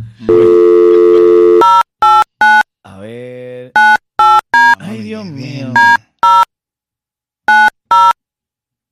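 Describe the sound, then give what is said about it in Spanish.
A live on-air call from the radio station Ritmo 95 to a contest winner: a steady phone tone gives way to clusters of short, bright electronic beeps as the call rings on with no answer, while a voice speaks briefly between the bursts. “Repica, repica y nadie lo coge.”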